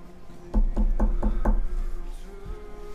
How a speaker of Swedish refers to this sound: Jag går fram och knackar på.